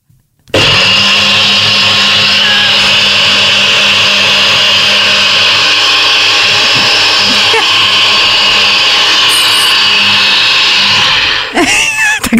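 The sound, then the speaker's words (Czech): A blender mixing a smoothie whirs loudly and steadily for about eleven seconds, a dense high-pitched motor roar that starts abruptly and cuts off near the end with a clunk. “tady, hele, teď je to zamíchaný jak nikdy.”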